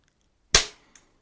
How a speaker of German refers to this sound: Ich bin ein bisschen enttäuscht von dem Klatschen